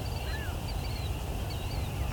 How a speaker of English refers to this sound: What's this? It's a really unusual red-winged blackbird call.